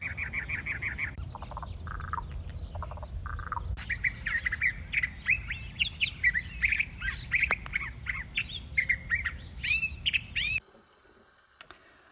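A dense chorus of birds chirping and squawking over a low rumbling background, with many overlapping calls throughout, fading abruptly near the end into near silence.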